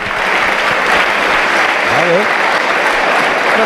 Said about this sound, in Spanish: Si arañas un poquitillo más, te llevas la ovación porque te vas como herido de guerra. Un poquito de tribunerismo, eso viene muy bien siempre. Mira cómo aplauden.